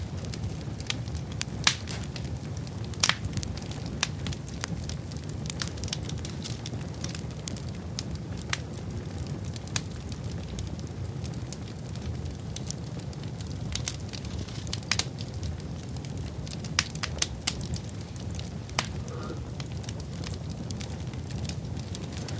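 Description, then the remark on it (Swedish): A log fire crackles steadily in a fireplace, sharp irregular pops and snaps scattered over a low, constant rumble of flames, with no voices present. “Radiobrasan”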